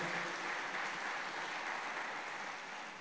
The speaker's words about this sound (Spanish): Denle un aplauso a Cristo Jesús, por favor, en esta noche.